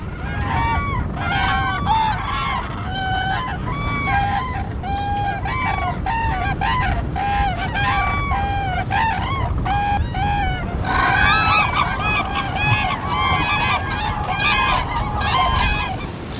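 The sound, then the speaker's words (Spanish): A flock of cranes calls continuously, with overlapping trumpeting cries, over the steady low roar of strong, gusting storm wind of force 11, up to about 117 to 120 km/h, at the lantern of the Cabo Vilán lighthouse on the Costa da Morte. No one speaks. “Temporal fuerte y las grullas.”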